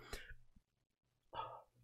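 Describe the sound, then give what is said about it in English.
Two short, throaty belch-like bursts separated by a brief pause, fairly loud against a quiet background; no speech. “Got burping.”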